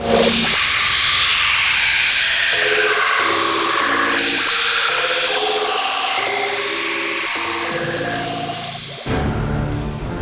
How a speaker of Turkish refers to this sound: Darth Vader abi düğmeye bastı. Cız diye 2550 sene evvelin Atina'sına gittik.